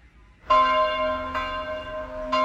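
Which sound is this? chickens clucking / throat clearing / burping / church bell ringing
church bell ringing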